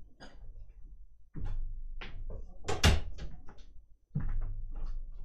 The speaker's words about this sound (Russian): А еще дверь-то открылась. Как она открылась-то? И думаю, откуда потянуло холодом?